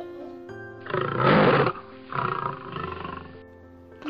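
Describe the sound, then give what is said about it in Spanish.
Several loud, growling roars like lions, in three drawn-out bursts, the strongest first; it sounds like a human voice imitating the roaring. “muchos leones gritando, ¡eh, eh, eh!”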